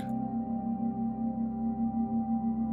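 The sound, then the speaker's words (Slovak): A steady, low humming tone holds unbroken for a few seconds, with a soft wavering pulse as two close pitches beat against each other, like a binaural beat drone with no voices. “V ľavom uchu budeš počúvať tón po frekvencii 234 Hz. V pravom uchu budeš počuť tón po frekvencii 230 Hz.”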